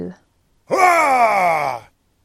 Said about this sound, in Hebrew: אה! קול גדול. מה זה? זה שופר. שופר. זה שופר. קול שופר. קול שופר.